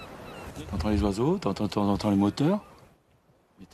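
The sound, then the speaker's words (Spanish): A loud run of harsh, honking bird calls from coastal birds on the Chausey archipelago, about half a dozen in quick succession over a steady rushing background, then the calls stop and only faint noise remains. “Se oyen los pájaros, se oyen de vez en cuando los motores.”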